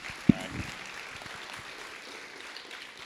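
round of applause

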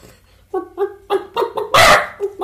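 chicken clucking

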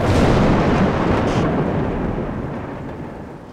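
rumbling thunder

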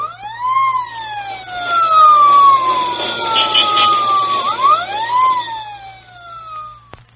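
emergency vehicle siren passing

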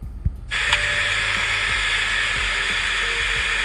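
water poured

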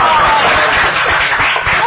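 audience applause

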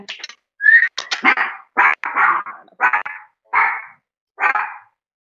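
pit bull dog barking

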